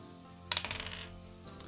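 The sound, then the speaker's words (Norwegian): A die, rolled as an attack roll in a tabletop role-playing game and landing on a natural 20, clatters across a hard surface in a quick burst of bright, rapidly diminishing clicks and rattles, then settles, with one faint tick afterward; fairly clear, no talking. “Ok, det er den første terningkastet, og det er en critical hit.”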